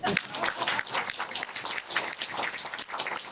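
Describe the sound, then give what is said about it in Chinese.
A crowd applauds steadily for a few seconds, a dense wash of many hands clapping at once at moderate loudness with no one speaking over it. “啊，各位有掌声不够。”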